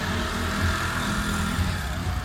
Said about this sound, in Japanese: あのシドニーですね、えー、シドニーの西の方に行く道でパラマッタロードって知ってますパラマッタロード、えー、そこのあの道沿いのマクドナルドなんですよねなのですぐ横にね車がたくさん通ってるんですよちょっとね車の音もあってうるさいかなと思ったんですが